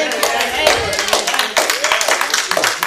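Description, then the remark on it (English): An audience claps steadily, a dense flurry of sharp hand claps continuing for a few seconds while voices call out beneath and among the applause. “That's just for you to get a hand clap.”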